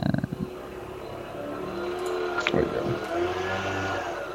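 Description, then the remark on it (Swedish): Leaf blowers run outside, a steady buzzing engine drone that wavers in pitch and swells slightly louder after a brief sharp clatter midway through. “Nu är de tillbaka med lövblåsarna.”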